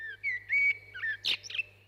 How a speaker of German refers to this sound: Übrigens, auch bei den Amseln singen nur die Männchen.